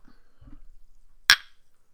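glasses clinking

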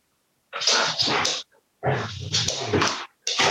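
dogs fighting

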